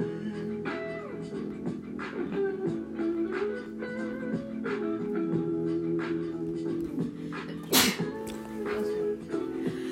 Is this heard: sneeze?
yes